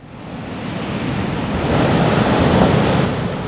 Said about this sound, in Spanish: Entonces, una ola gigantesca de 30 metros de altura comenzó a acercarse rápidamente a la costa y llegó a la orilla. El mar comenzó a engullir la tierra, arrastrando todo lo que encontraba a su paso, arrancando palmeras, tragándose a las personas,